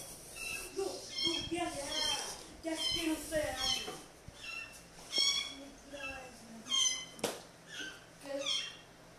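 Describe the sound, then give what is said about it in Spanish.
A cat meows repeatedly during a recording, in short, rising cries with a tonal, squeaky quality, spaced irregularly over several seconds with faint background noise. “¿Qué le pasa al gato?”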